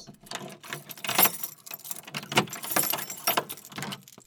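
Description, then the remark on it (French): A large key, shown by a guide in a church, jangles and scrapes as it is worked into the lock of a door opening onto a stone staircase, a run of metallic clinks and rattles with a few sharper clacks, no voices. “Un guide taquin me montre alors une grande clé. Elle s'engouffre dans une serrure dont la porte s'ouvre sur un escalier en pierre qui semble interminable.”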